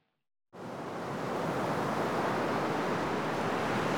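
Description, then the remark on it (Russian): After a brief silence, a loud, dense roar of stormy sea surges in and holds steady, a continuous churning wash of heavy waves crashing onto a ship during a storm off New Guinea, with no voices. “Огромные волны, готовые смыть все на своем пути, обрушились на корабль.”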